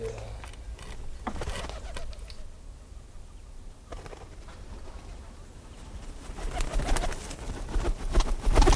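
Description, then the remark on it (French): Pigeons coo low and steadily while sharp bursts of wing flapping break in now and then, growing busier and louder toward the end. No one speaks. “Euh, les pour des pigeons, il ne faut pas que les ailes claquent, faut il faut qu'il ait un, un joli envol, pas brusque”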